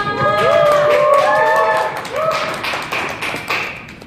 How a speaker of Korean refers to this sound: 오늘의 토크 콘서트 시작하도록 하겠습니다. 지금 많이 안 계신 거 다 아니까 박수는 더 크게 쳐주세요.